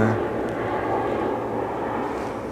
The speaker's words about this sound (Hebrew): זה תעופה צבאית. אה. F-16 בדרך כלל.